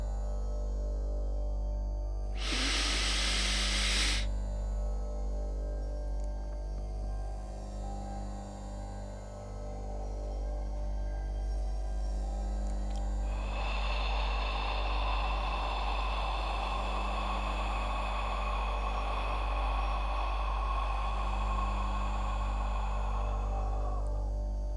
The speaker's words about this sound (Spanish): Repito, una inhalación por la nariz rápida y profunda, una retención de al menos 10 segundos y una exhalación lenta y profunda por la boca. Sería más o menos así.